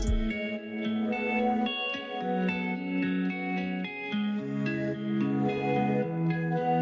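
A rap song intro plays alone: layered, sustained melodic tones washed in heavy echo and reverb, steady and fairly loud, with shifting notes and no vocals yet.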